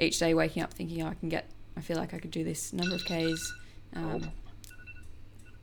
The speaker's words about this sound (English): um, so that was my alarm to call my mother.